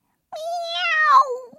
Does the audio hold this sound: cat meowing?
yes